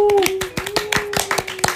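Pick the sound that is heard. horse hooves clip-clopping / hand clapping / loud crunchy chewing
hand clapping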